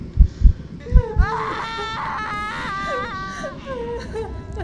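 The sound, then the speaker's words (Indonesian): The family of a patient, waiting in a hospital room, wails and sobs together in grief. Long quavering cries rise and fall in pitch, with a few low thumps at the start beneath the loud, anguished crying. “Lalu meledaklah tangis keluarga yang menunggu pasien di ruangan itu.”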